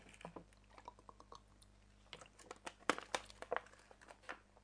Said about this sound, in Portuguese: Vamos lá. Acabamos aqui, eu vou tomar um gole d'água.